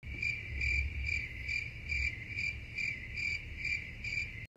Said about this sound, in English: i had two frontiers back in the day and I liked them back when I was a kid playing them, but they didn't grab me as much when I when I had them here. I think it's the uh, the crickets just got to me.